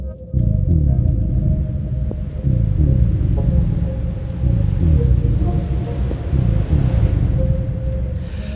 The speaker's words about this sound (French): Le silence de l'étang est oppressant. Le seul son qu'il entend est le bruit de l'eau qui monte. Un son qui gronde et résonne en lui comme un glas funèbre annonçant sa fin prochaine.